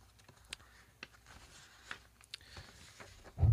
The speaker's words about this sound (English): God dang it. Hate it when my pages are sticking together.